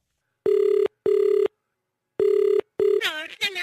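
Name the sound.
telephone ringing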